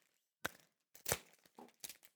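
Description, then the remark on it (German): Floral-patterned wrapping paper crinkling and tearing as a gift is unwrapped, with a sharp rip followed by several rustling, crackling bursts in quick succession, no voices present. “eingepackt mit äh, Blumen, oh. floralem Papier.”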